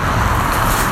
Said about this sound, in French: Je suis désolé pour ce bruit de voiture.